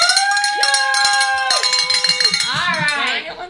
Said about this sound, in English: We get to ring the bell for that anonymous donor. So we get to ring it again.